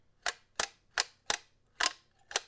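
Six crisp mechanical shutter clicks of a Kodak Brownie 620 film camera snap in a steady, evenly spaced rhythm, each one sharp and brief with a faint rattle, alone against near silence.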